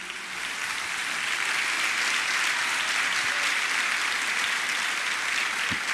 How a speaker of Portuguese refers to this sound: Aplauda ao Senhor por um momento.